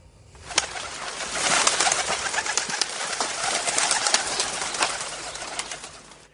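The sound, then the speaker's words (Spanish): Homing pigeons coo and murmur in a busy flock, with scattered clicks and flutters over a dense, steady wash of background noise lasting the whole stretch. “Bien, con fines bélicos, comerciales o humanitarios, lo cierto es que la paloma mensajera siempre ha estado a nuestro servicio.”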